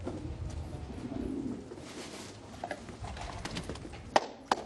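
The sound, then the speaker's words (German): Pigeons kept by an old man coo softly and repeatedly on a rooftop in Syria, a low burbling murmur over a steady ambient hum, with a couple of sharp clicks or flaps near the end. “Oben auf dem Dach züchtet der alte Herr Tauben wie viele Syrer.”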